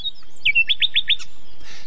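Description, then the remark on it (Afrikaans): A nightingale sings a quick run of about five bright, rising whistled notes in steady rhythm, clear with no voices around it. “Net toe begin die nagtegaal sing.”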